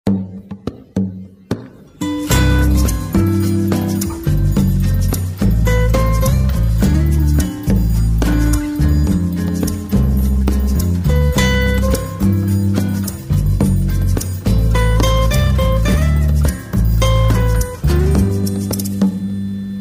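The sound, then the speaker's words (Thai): A song played during a break in a Thai program starts after a couple of seconds of sparse taps, then plays loud and full with a steady rhythmic beat, deep bass and bright sustained melodic lines, with no talking over it. “ช่วงนี้เราไปพักฟังเพลงกันสักครู่หนึ่ง”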